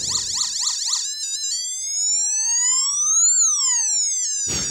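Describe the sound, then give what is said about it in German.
An electronic siren from an electronic circuit, with harmonic-rich tones: a fast warbling yelp at first, then a slow tone sweeping steadily upward and back down, ending in a brief burst of noise. Loud, with no talking. “Da können wir unterschiedliche so ähm, Sirenen und so weiter machen.”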